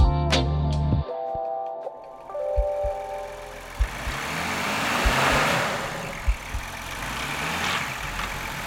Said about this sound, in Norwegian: 457 hestekrefter i en V6-motor på 3 liter, firehjulstrekk og 10 gir. Ja, Er man eh, bilinteressert, så er det lett å få vann i munnen.